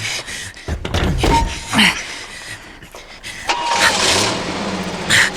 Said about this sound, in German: Verdammt. Er fährt weg. Könnt ihr das Auto sehen?